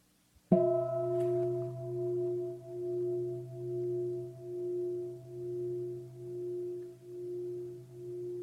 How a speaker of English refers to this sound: Normally, you say, What do you hear? Or oh, I hear the sound of a bell, as if it's one thing. Is that one thing?